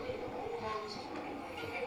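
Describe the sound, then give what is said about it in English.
A steady, continuous rumble of passing vehicles fills the background, a broad whooshing traffic noise at moderate volume with no clear breaks, and faint voices murmur underneath. “I think next time we really got to go somewhere we don't hear the cars in the background.”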